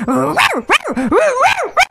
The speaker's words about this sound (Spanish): Y los mil perritos que estaban ahí también lo hicieron. Empezaron a ladrar igual.